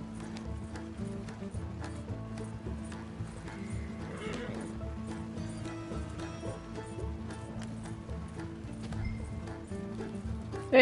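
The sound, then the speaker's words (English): Horse hooves of horses pulling a stagecoach clip-clop in a steady, continuous rhythm, with a whinny breaking through over a constant low rumbling background and a brief loud burst at the very end. “see, the horses are following.”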